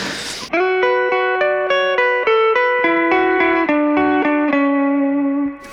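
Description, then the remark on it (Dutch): An effects-laden electric guitar plays a melodic line of single sustained notes, about a dozen, stepping up and down at a steady pace. The tone is loud and smooth, following a brief noisy burst. “En hij, het ding met deze gitaar is dat hij gewoon heel mooi vertaald naar opnames altijd.”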